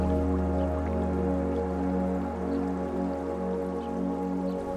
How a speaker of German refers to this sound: Du beobachtest das sanft sprudelnde Wasser und wiederholst dabei im Geist diese positiven Gedanken.